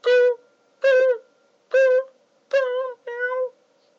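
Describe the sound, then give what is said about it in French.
A man's voice imitates a cat meowing as a sound effect, five short, fairly flat mews in a steady rhythm, clear, with brief pauses between each and the last two coming quicker. “il fait le sonore, mais il refait le chat.”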